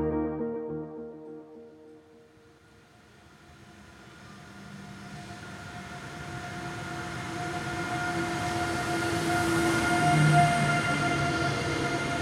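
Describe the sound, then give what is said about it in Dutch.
From inside a carriage of a train leaving Rotterdam Centraal for Brussels in September 2022, a low rumble and steady motor hum swell gradually as the train pulls away and gathers speed, with no voices. “Met twee bekers koffie in de hand stap ik in de trein naar Brussel.”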